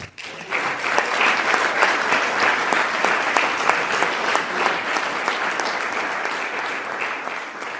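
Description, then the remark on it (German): An audience claps steadily and loudly for the female speaker at the close of an evening talk, a dense crackle of many hands that starts abruptly and holds at an even level for several seconds, with no voices standing out. “Ich danke euch allen fürs das Kommen und wenn der Abend so schließen, mit einem herzlichen Applaus an die Referentin.”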